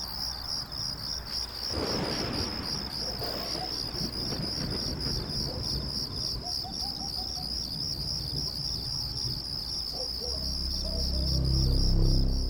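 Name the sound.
crickets chirping at night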